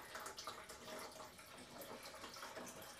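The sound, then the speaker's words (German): Water runs steadily into a coffee machine's tank, a soft continuous splashing and trickling that stays fairly quiet and even throughout, with no voices. “Jetzt füllen wir auch mal noch kurz Wasser nach.”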